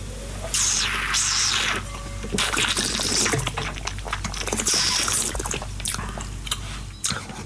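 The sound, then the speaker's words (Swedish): Wet slurping sips drawn through the lips with air, in about three drawn-out bursts, the sound of someone tasting a 2016 wine from a glass. No one speaks. “Vi, vi tar en sipp igen nu på 2016.”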